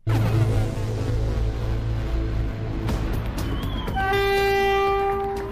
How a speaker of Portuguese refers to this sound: O comboio parte de Aveiro às 13 horas e 50 minutos. O destino é Macinhata do Voga, numa viagem que convida a voltar atrás no tempo. Nesta edição, deslizamos pelos carris à boleia do comboio histórico do Voga.